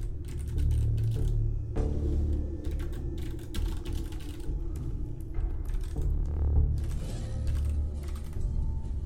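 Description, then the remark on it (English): Rapid, irregular clacking of keys on a computer keyboard that is not working, steady for several seconds, with bursts of quick taps and brief pauses, no voices. “My keyboard is still not working.”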